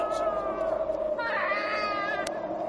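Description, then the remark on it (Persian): A hungry, thirsty newborn baby left on a hard stone bed cries in a continuous high, wavering wail, its pitch rising and bending midway through, holding steady in loudness for a few seconds with no talking. “گریه نکن نوزاد معصوم گریه نکن که برایت چاره ای خواهم اندیشید”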